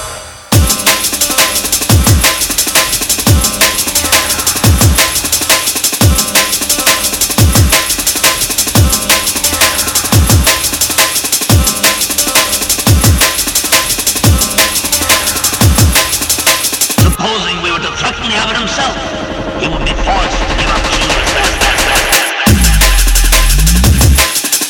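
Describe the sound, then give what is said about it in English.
A loud, dense drum and bass track with booming sub-bass hits under fast, busy percussion, shifting into a thinner breakdown near the end before the full beat returns. No voices. “I'm rolling out another exclusive from the album …. And this one's called ….”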